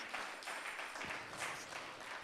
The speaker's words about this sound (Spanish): Denle un fuerte aplauso a nuestro Señor Jesucristo, mis amados hermanos.